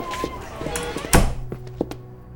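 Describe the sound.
A door shuts with a single heavy thunk, preceded and followed by a few lighter knocks and shuffling sounds, with faint voices murmuring in the background.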